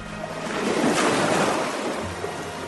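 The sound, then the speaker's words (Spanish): A wave washes onto the shore with a broad, hissing swell that peaks and slowly recedes, a steady surf sound with a low rumble underneath and no voices. “Ante él se extendía la interminable placidez del gran océano occidental, era tan inmenso que sintió la urgencia de adentrarse en sus aguas”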